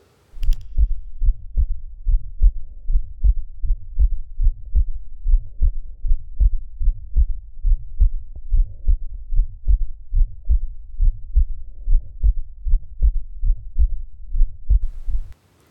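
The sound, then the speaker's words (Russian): The heartbeat of a boy about five years old through a stethoscope at the heart apex, a fast steady rhythm with a soft, vibratory Still's murmur between the beats. No voices, just continuous thumping. “Давайте послушаем несколько примеров шума стила. Первый пациент – мальчик около пяти лет. Верхушка сердца”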